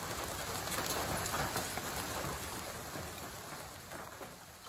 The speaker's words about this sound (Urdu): اولے پڑنے کی آواز سن کر آپ پریشان ہو سکتے ہیں بری خبر ہو سکتی ہے خاص طور پر اگر آپ کی گاڑی سڑک پر یا کھلی جگہ پر پارک ہو